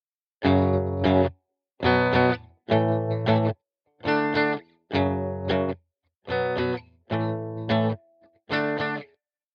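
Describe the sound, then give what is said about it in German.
A distorted electric guitar strikes eight sustained power chords in a steady, deliberate sequence, each chord ringing briefly before a short gap, loud with no voices; a beginner's rendition of a song, the chords correct but lacking a rhythmic component. “Ein paar Power Chords, ein paar Noten, was soll da schon schief gehen?”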